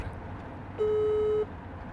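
A phone's ringing tone plays once through a speakerphone as an outgoing call is placed: a single steady electronic tone lasting under a second, clear and fairly loud over a low background hum, with no one talking.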